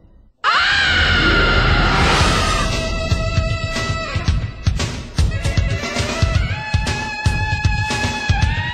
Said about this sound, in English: We'll explain all after these short screams.